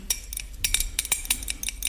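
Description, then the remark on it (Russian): A spoon stirs and clinks rapidly against the inside of a glass, dissolving half a pill in two spoonfuls of water, a quick irregular series of bright metallic taps, with no voices. “Так, растворим половинку в этой водичке.”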